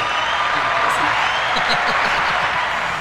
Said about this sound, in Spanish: Ya, ya, ya, la gente está como, como dormida. Ya. ¡Aplauso!